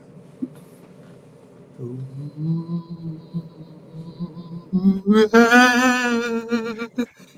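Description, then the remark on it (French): A person imitates a ghost with long, wavering moans, starting low and steady, then swelling into a louder, higher, quavering wail before cutting off. No words are spoken. “Bon, écoute, écoute, écoutez bien, je vais vous faire la démonstration claire que les fantômes, c'est plus épeurant.”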